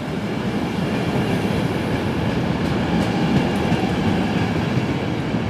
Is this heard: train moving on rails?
yes